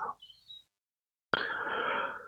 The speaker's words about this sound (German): Jetzt habe ich auch noch Husten hier, mein Gott.